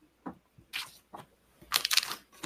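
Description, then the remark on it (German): Crinkling of the plastic bags of an old LEGO set being handled, several quick rustling bursts with brief pauses between them, the loudest flurry near the end and no voices. “Äh, hier sind alle Tüten.”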